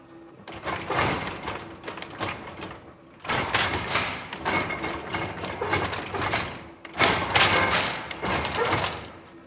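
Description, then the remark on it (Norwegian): A jacquard punch-card loom clatters loudly, its wood-and-metal shuttle carrying thread and banging rapidly back and forth at about 100 km per hour as it lays thread into the weave. The dense mechanical racket is broken by two brief pauses. “Det flyr jo som en sånn kanonkule gjennom her.”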